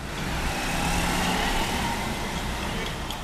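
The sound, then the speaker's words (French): Steady road traffic rumbles, a continuous wash of engines and tyre noise as many cars arrive and move past outside the Palais du Peuple, with faint voices mixed into the background. “Il y a déjà euh, beaucoup, beaucoup de voitures, signe qu'il y a euh, beaucoup de monde en cette séance plénière.”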